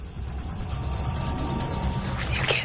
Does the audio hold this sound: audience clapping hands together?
no